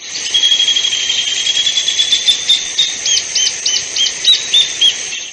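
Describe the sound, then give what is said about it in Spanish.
Birds singing, heard at home in the morning, with high, bright chirps and trills, steady at first and then breaking into a rhythmic run of repeated short calls, fairly loud, with no talking. “Les cuento con mi familia desde que nos levantamos, escuchamos el canto de los pájaros.”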